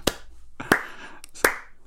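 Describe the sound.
Three slow, isolated hand claps spaced evenly apart, each sharp, with quiet gaps between and no one else joining in; a lone clap at the end of a song played in a pub.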